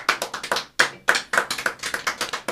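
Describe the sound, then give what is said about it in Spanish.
A short burst of applause from a small group for the program's guests, a dozen or so sharp, crisp claps in an uneven rhythm, fairly loud, with no voices over it. “Un aplauso, por favor, a nuestros invitados.”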